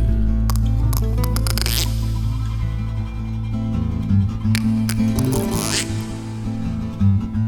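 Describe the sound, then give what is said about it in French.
A voice imitates frog croaks with raspy, clicking bursts and a couple of rising squelchy sweeps over a steady low drone, loud throughout. “petit garçon il s'assoit sur un tronc d'arbre et il écoute les grenouilles. D'abord, elles ne parlent qu'en langage des grenouilles, quoi.”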